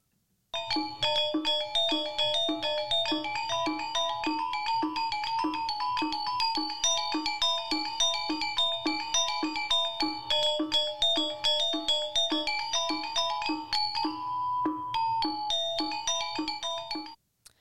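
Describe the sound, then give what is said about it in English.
Balinese wayang shadow puppet music: bright, ringing metallophones play fast interlocking patterns in a steady, driving pulse, with shimmering overtones and a brief pause near the end before resuming. “of music that would accompany a wayang”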